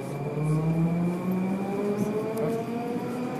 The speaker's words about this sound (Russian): Сейчас мы в метро, и есть время.